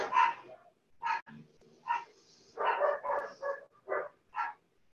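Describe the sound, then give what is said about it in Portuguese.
A dog barks repeatedly in a quick, uneven series of about eight short yaps, some bunched close together, heard at moderate volume with no talking over it. “seja ponto para relaxarmos cada vez mais cada latido, cada carro, cada criança, cada porta batendo, cada janela se abrindo, cada janela se fechando.”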